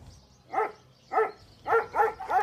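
Dogs bark five times, two evenly spaced woofs followed by a quicker run of three, with no talking and only a faint background hum between barks.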